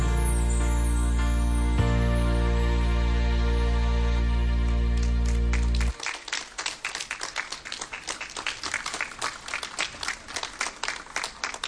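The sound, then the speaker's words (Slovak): A sustained musical chord ends a song at a pilgrimage and stops abruptly, followed by the audience at the front and back breaking into steady, dense applause: many hands clapping in a continuous crackling wash that lasts several seconds. “Ďakujem veľmi pekne za potlesk, aj vpredu, aj tam vzadu.”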